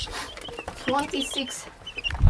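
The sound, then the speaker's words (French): A brood of 26 three-week-old chicks peeping and clucking under a small light, with high, overlapping chirps coming in quick, irregular bursts and a low rustle near the end. “Moult pui, ça veut dire qu'il y a beaucoup de petits poules.”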